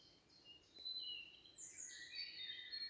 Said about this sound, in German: Die Essenz hier aus dem Wald, dem ich umgeben bin von Grün aller Facetten, von Bäumen, von Vögeln, die ihren ja, ihr Lied zwitschern, du wirst es hören.